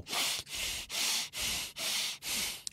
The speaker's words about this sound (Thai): หายใจตื้นตื้นทีทีถูกไหมครับ นั่นคือความเครียดจะมาพร้อมกับลมหายใจแบบนี้